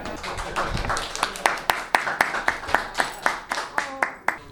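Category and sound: crowd, audience clapping and cheering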